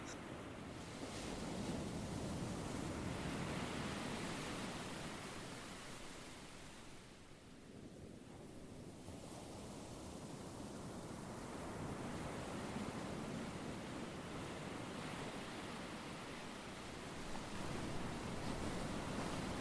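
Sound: ocean waves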